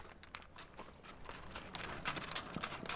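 Hooves clop on a hard floor inside a horse stable at the Faxaborg stable street in Breiðholt, Akureyri, a series of irregular knocks and scrapes as horses shift and step, with no talking.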